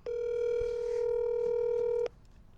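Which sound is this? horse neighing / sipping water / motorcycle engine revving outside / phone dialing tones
phone dialing tones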